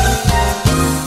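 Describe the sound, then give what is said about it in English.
A hungry stomach rumbles during a lunch break with a low, drawn-out gurgle lasting about a second, swelling in two brief louder pulses. No one speaks over it. “was that my stomach?”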